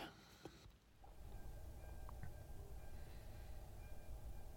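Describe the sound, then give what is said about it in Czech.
A train passing a level crossing without barriers, heard as a steady low rumble with faint metallic whine that holds throughout after a brief burst of noise at the start; no one speaks. “Tak a už kolem nás projíždí ten nahlášený vlak.”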